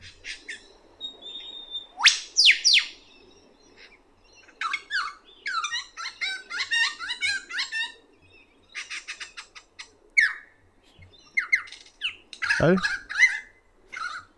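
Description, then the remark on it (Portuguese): A single lyrebird mimics the songs of various other bird species, running through a rapid series of varied songs and calls: whistles, trills, sharp chirps and a descending swoop, shifting style every few seconds, with no talking. “Vocês vão ver ele imitando vários pássaros ao, pássaros ao longo do período, saca só.”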